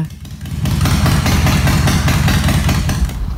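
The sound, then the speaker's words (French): A Harley motorcycle engine idles, a loud, deep, lumpy rumble pulsing in a steady uneven rhythm for the whole stretch, with no one talking over it. “C'est un peu ça le bruit d'un ouais, ça, ça je pense que, tu sais, je respecte toutes les gens qui ont une moto, mais un Harley, j'ai l'impression que c'est comme un son où après, après une coupe d'heure, j'aurais mal à la tête.”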